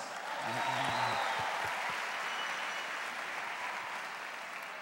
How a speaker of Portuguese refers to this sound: Vamos aplaudir, pessoal. Deus abençoe São Joaquim.